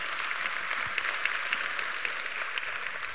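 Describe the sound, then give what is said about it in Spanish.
An audience applauds steadily, a dense wash of many hands clapping at an even loudness for a few seconds with no voices over it. “pues, amén, podemos aplaudir a eso, porque es lo que hace Dios.”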